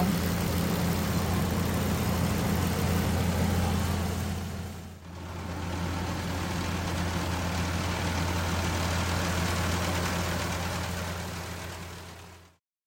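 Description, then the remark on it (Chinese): A combine harvester moving through a rice field drones steadily with a heavy low hum and a broad mechanical roar, dipping briefly partway through before resuming and then cutting off at the end. No voices. “收割机在田间穿梭，它们就拍着翅膀，紧紧地跟在后面，等着啄食喷溅的稻谷和震动出来的小昆虫。”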